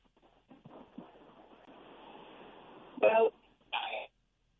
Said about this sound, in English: You know what? Just give me a call back. It's you probably cut off because of a, a mobile phone or something. So give me a call back because you can't hear me now, right?